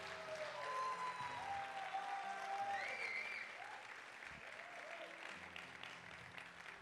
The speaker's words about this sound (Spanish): Vamos a darle ese aplauso que se oiga en toda esta ciudad.